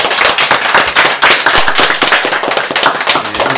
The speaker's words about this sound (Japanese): はい、えー、お二人にぜひ盛大な拍手をお願いします。